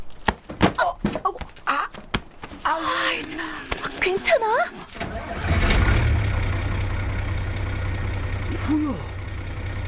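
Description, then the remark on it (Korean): A bus engine starts up and idles with a steady low rumble for the second half, after a stretch of people talking over lighter background noise; it is the bus to Gongju, about to depart at 4:02 for its 4:05 departure. “버스 가 출발하게 생겼는데? 벌써 4시 2분이잖요.”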